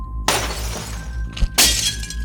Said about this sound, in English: No! Stop that now! I can't believe I'm smashing mirrors. My beautiful reflection.